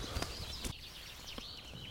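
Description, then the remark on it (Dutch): A nightingale sings continuously, a thin, fluid warble of rising and falling whistled notes, faint, with a couple of soft low thumps near the start. “Ja, ik hoor je eerste een nachtegaal, Moet even iets doorlopen.”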